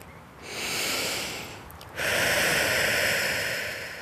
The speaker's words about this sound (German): Und ich habe mir jetzt das Bänkchen ausgesucht, ganz allein bei einem kleinen Teichli. Und ich mache jetzt einfach das, was er mir geraten hat, nämlich zehnmal tief durchschnaufen.